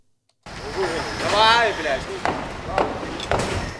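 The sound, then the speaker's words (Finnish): Busy outdoor construction noise at a building site in Warsaw, Poland, in temperatures well above 30 degrees, with sharp, irregular knocks and bangs, a rising-falling whine in the background, and indistinct voices mixed in. “Lämpömittari näyttää pitkälti yli 30 astetta, mutta varsovalaisilla rakennustyömailla riittää vilskettä.”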